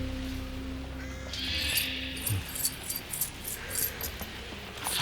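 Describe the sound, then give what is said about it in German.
A house door key jingles and clinks softly in a hand as someone plays with it, a string of light metallic taps over a low steady hum, without speech. “Nachdenklich spielte Justus mit dem Haustürschlüssel, den sie im Totenkopf gefunden hatten.”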